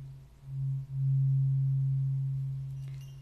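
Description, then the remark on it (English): A low, bell-like ringing tone from a tuning fork hums steadily on its own, briefly dipping near the start before swelling back and slowly fading, with no voices present. “This is just like a little bell.”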